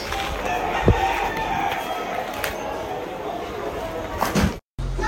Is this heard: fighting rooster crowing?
yes